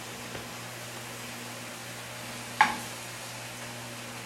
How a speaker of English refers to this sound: Yep, that's my bullshit ass washing machine y'all just heard. The spin cycle is all messed up.